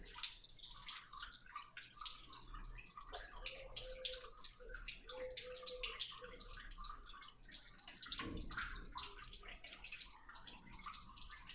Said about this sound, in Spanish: Me encanta el canto del agua. Tiene un sonido peculiar, ¿no? Sí. nunca me ha puesto a prestar atención al, ruido del agua.